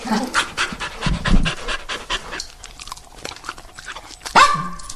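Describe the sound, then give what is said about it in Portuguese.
A therapy dog with a fox-like snout, fluffy tail and spotted paws pants and sniffs at the microphone in quick, breathy bursts, loud, with a brief sharper yelp-like sound near the end. “já vai cheirar o microfone.”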